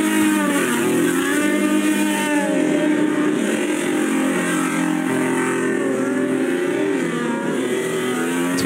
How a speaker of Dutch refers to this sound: Formule 1 bolides die lekker in de rond draaien. Ehm, lekker veel eh, rook komt er dan van die banden af.